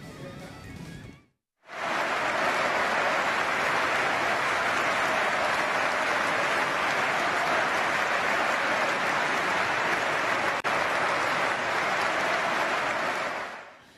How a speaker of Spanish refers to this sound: todos los aficionados se pusieron de pie, aplaudieron un minuto en homenaje